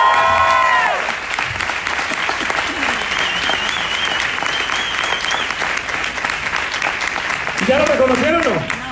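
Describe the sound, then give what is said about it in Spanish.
Steady audience applause in Mexico for a new silver-level member coming up, filling the whole clip, a dense wash of many hands clapping with a few whoops and cheers rising above it, and voices briefly heard at the start and end. “Vamos a darle un aplauso al nuevo plata.”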